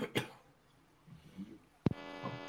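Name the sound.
cough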